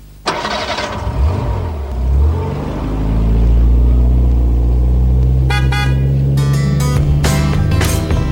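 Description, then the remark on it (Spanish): A car engine turns over and starts, then settles into a steady rumble that swells as the car pulls away to continue on its route, with several short horn toots near the end. “Cogemos el coche porque seguimos ruta.”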